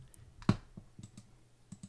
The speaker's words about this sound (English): Sorry for all the clicking.